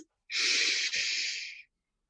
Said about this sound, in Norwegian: Og det som pusten gjør, da ikke sant? Når jeg puster inn